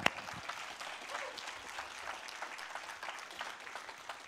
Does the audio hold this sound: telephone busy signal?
no